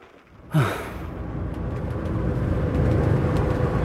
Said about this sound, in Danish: Jeg starter nu autocamperen lige om to sekunder og sætter kursen direkte imod Horsens.